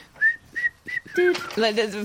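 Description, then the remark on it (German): A whistled theme-tune melody played during a show's end credits, fairly loud: three short, rising whistle notes in a steady rhythm, followed by a busier, fuller-toned passage that sounds partly hummed or voiced. “fucking Pfeifengeräusch”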